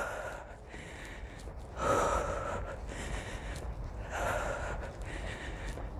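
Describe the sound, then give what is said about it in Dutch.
Heavy, rapid breathing, a run of noisy in-and-out breaths with a couple of louder gasping inhales, as someone catches their breath right after finishing a hard timed exercise interval. No talking. “Zoek meteen die ademhaling weer op.”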